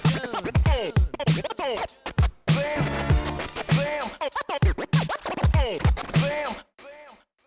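A Danish rap track with turntable scratching: rhythmic, bright scratches sweep up and down over a thumping beat, loud throughout before cutting out near the end.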